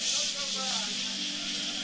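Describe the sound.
A voice imitates the juices of picanha sizzling on hot charcoal under a grill with a steady, loud, hissing spray of sound that lasts about two seconds, with a faint voiced hum underneath.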